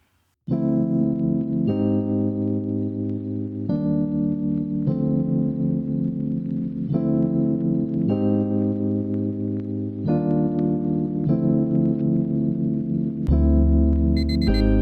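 Instrumental opening of a rap single: loud, steady synth chords shifting every couple of seconds over deep bass, with a chiming, alarm-like tone, and a heavier bass drop right at the end. No vocals.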